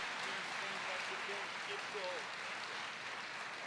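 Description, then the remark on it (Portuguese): An audience applauds steadily for several seconds as an offering to the Lord. A dense, even wash of clapping, with scattered voices calling out over it. “Você pode dar uma oferta de salvo de palmas para o Senhor?”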